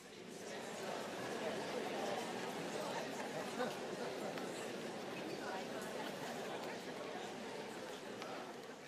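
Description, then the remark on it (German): An audience of people all turning to their neighbours and speaking to them at once, a dense, steady murmur of overlapping voices that holds at an even level for several seconds. “Dreh dich mal zu deinem Nachbarn um und sag, du bist einzigartig.”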